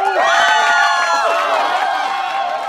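Several voices shout and cheer excitedly at once, loud and close, with high overlapping whoops rising and sustained throughout the brief burst of celebration.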